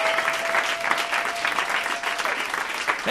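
An audience bursts into sustained applause, a dense, steady wash of many hands clapping at full volume for about three seconds, with a faint held tone running underneath for the first part.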